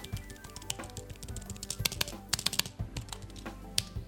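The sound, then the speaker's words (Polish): Typing on a Logitech solar keyboard, a quick irregular run of light clicking keystrokes with a few sharper taps, no voices over it. “Mam tu klawiaturę mm, Logitecha, E, klawiaturę solarną, o której też zresztą mówiłem swego czasu w Tyflo Podcaście.”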